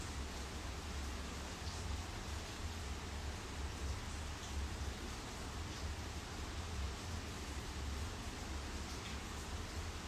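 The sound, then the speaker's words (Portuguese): Steady rain falls continuously, a dense, even hiss with faint scattered drops pattering on a surface, heard alone without any voices for the whole stretch. “Talvez vocês escutem a chuva da onde eu for.”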